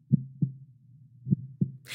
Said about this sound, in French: Pendant le break, il y a une rythmique qui imite un battement de cœur.